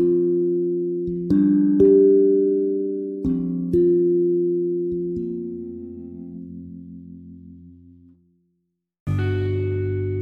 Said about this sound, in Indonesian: Nada tersebut bunyi saat ia berusaha menjawab panggilannya.